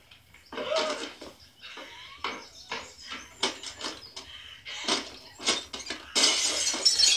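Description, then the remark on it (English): Glass door shattering in a long, chaotic run of sharp crashes and tinkling fragments, bursts coming in uneven waves before a loud final spray of breaking glass. Fairly loud, no voices. “Whoa, I mean, how, how you, who's gonna pay for that door?”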